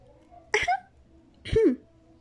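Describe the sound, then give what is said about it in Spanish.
Two short, prim throat-clearing coughs, a voiced "hem, hem" with a slight pitch rise, spaced about a second apart. A voice imitates Professor Umbridge's ridiculous little affected cough in Professor McGonagall's class. It is the same cough she used to interrupt Dumbledore on the first night of term. Nothing else is around it. “La profesora Umbridge utilizó la misma tosecilla ridícula con que había interrumpido a Dumbledore la primera noche del curso.”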